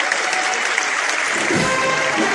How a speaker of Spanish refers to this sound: y ahora sí dentro ya está dentro, ya le da la sombra completamente a todo ese paso de palio que brillaba plateado y esos aplausos de toda la plaza, de toda la calle Pureza